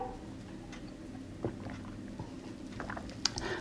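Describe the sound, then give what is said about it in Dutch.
Someone takes a quiet sip of water, with faint mouth sounds, a soft swallow and a few small clicks from handling a glass against a low background hum. “En om jij even in spanning te laten zitten, pak ik weer even een slokje water.”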